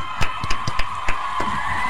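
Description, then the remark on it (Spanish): A handful of sharp, uneven claps ring out over a steady background hiss, like a few people applauding briefly and loosely rather than a full ovation. “un aplauso, un aplauso.”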